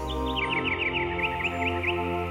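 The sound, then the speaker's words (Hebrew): Songbirds chirp in a quick series of short, bright notes, repeated steadily over a couple of seconds, set against a soft, sustained humming drone underneath. “ציפורי שיר מצייצות.”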